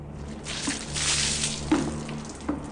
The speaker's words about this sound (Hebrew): איך זה שופכים ככה מים על אנשים שעוברים ברחוב? מה זה, אין לך עיניים?